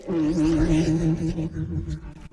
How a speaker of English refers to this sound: A Night Fury breaking the sound barrier is our applause